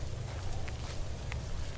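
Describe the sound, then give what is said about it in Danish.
A few soft, evenly spaced footsteps crunch along outdoors as a man walks alongside a truck to check its cargo hold, faint against a steady low rumble and wind-like hiss, with no one speaking. “Da han går langs lastbilen, trækker han jakken op til ørerne.”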